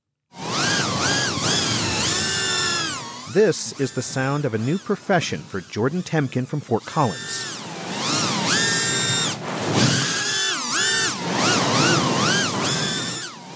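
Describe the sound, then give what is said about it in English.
A racing drone's loud, high-pitched motor whine swoops up and down in pitch as it darts and turns through an outdoor obstacle course on a windy day until it touches down, with a man briefly talking over the buzzing partway through. “It's not a dental drill, it's a drone racing through an outdoor obstacle course on a windy day until it touches down.”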